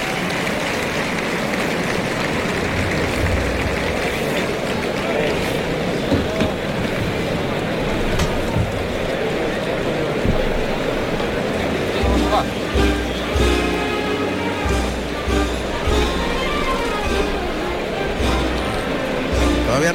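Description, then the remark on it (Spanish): A big bullring crowd gives matador Morante de la Puebla a strong, sustained ovation after the bull goes down, a dense roar of applause and cheering that fills the whole stretch, with brass band music playing a paso doble joining in partway through. “Morante de la Puebla va a recibir una fuerte ovación.”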